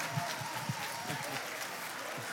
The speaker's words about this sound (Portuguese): Uma salva de palmas para eles aqui, gente.